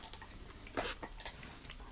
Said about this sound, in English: And excuse me, that's not me chewing. That is the studio dog.